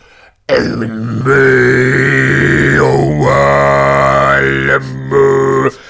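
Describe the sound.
Mongolian throat singing: a deep, buzzing drone with a bright whistling overtone that holds steady, dips and rises, sung in a few long, loud phrases with brief breaks between them.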